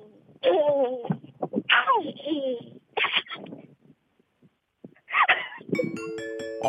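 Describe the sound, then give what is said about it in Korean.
A voice imitates a friend's baby babbling in several short, pitch-sliding bursts of coos and gurgles with brief pauses between, fairly loud, followed by a bright chiming tone at the end. “마지막으로 그 친구 아기를 보면서 떠올렸던 아기 옹알이를 해볼게요.”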